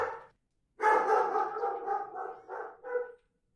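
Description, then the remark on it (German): A dog barks threateningly, a brief opening bark followed after a pause by a sustained run of harsh, loud barking that tapers off in a few final bursts. “Sie stolperte über fremdes Grundstück, fiel und fürchtete von einem drohenden Hund gestellt zu werden.”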